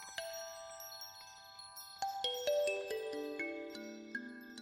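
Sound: doorbell ringing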